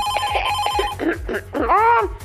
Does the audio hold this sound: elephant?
no